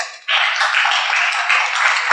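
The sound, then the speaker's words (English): An audience breaks into applause after a short quiet moment, a dense, steady wash of many hands clapping that stays loud and even for about two seconds. “But let's give them an applause.”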